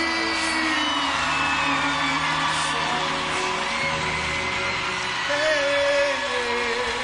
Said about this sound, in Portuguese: Se essas palmas são para ele, tem que ser mais forte.